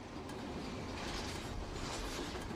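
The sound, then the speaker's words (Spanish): A train rolls along the rails with a steady, continuous rumble and faint metallic rattle, even in loudness throughout, with no voices. “Parecía que Reséndez había regresado a los rieles.”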